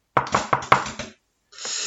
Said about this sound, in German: Oh, kann sich jeder merken, ne? wenn es viermal klopft.